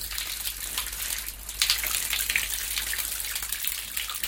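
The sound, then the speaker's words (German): Water from a simple shower in a rotting wooden board shed trickles steadily from above, a continuous hissing splash with small spattering bursts, moderately loud, with no voices; the water comes from the Murray River and drains through a plastic pipe. “Eine einfache Brause in einem vermoderten Bretterverschlag.”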